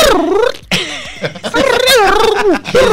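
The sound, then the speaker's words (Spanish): A voice imitates the whiny, cartoonish crying of the character Kiko, with wavering, high-pitched wails in several drawn-out bursts, loud, alongside short bits of laughter. “el llanto de Kiko.”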